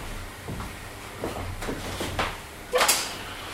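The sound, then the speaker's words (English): A hotel door being opened to let someone in: a few soft clicks and rattles of handling, then a louder sharp clunk near the end. No one speaks. “I'll, I'll go and let him in. Yeah, go and open the door.”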